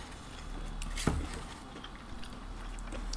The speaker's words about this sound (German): Hört man mich kauen? Ja. Gut.